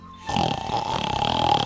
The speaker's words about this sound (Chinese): 哼哼哼，五只小猪走了过来。